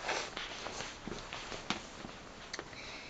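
Footsteps of a swaggering tiger: a steady series of soft, crunchy padded steps, about a dozen over a few seconds at an unhurried rhythm, moderately loud with no voices.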